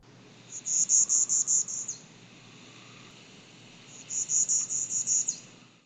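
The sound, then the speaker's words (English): A male Bachman's warbler sings two rattling songs, each a rapid, even series of about eight buzzy high notes lasting over a second, separated by a short pause, with a faint background hiss. “The song of the male Bachman's warbler was described as a rattle”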